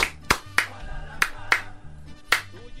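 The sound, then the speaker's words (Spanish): Brief applause: about six sharp, separate claps at an uneven pace, loud against a low, steady humming tone underneath, with no talking. “Un aplauso para el Cepillo.”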